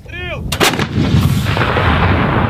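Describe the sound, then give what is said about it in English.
An M777 howitzer fires once: a brief warbling tone, then a sharp, powerful boom that rolls into a long, low rumble. No one speaks. “He means M777 howitzers, like the ones Ukrainians still train on in Germany to this day.”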